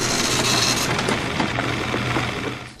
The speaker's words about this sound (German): Jetzt geht der Drucker wieder. Jetzt geht... Ja. Das jetzt geht das wieder von vorne los.